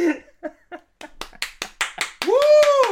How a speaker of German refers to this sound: Willkommen zu einer neuen Folge von Männlicht. Das geht dann so direkt in Applaus über. Und man ist sich nicht sicher, ob da ein nacktes Publikum erinnern sitzt und alle mit, mit ihrem Dong applaudieren.